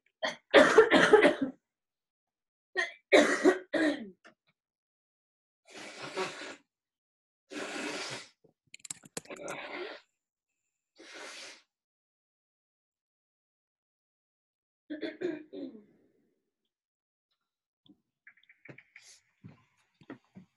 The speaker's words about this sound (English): I need to go blow my nose really quick because I have a cold and it's like dripping down. So I'll oh, be right back.